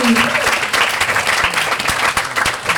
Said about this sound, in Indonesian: Oke, kita berikan tepuk tangan yang meriah luar biasa sekali.